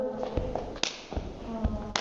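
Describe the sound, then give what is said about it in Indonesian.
A series of about five sharp hand claps spread over two seconds in a loose, uneven rhythm, the 'tepuk salut' clapping chant being demonstrated, with a faint tonal murmur underneath. “gini ya tepuk salut. Tepuk salut.”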